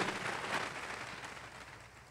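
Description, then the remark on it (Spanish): An audience applauds, a dense, crackling wash of many hands clapping at once, holding steady and then easing off slightly toward the end, with no voices over it. “Espérame, ya se le va a quitar la gana de aplaudir.”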